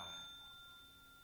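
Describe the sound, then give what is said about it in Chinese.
A single bright ring of a hand bell, struck once during Buddhist worship as the signal to rise after bowing to the Buddhas of the ten directions, its clear high tone sustaining and slowly fading with no voices present. “然后宽一个钟，一个提钟声，然后就起来，这是高起的意啊。”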